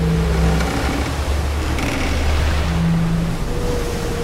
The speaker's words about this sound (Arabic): فرمى ثور شبكة الصيد محاولا القبض على الوحش وبالفعل علق بالشبكة وبدأ يترنح ليهرب منها مما أدى إلى ارتفاع أمواج ضخمة كادت تقلب المركب